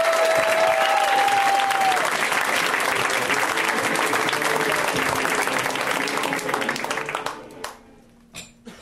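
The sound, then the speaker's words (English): An audience bursts into loud, sustained applause with some cheering as a comedian is introduced, keeping up a dense clapping roar for several seconds before it fades away into a few scattered claps. “Let's hear it right now from Mr. Ian Karmel, guys. Give it up”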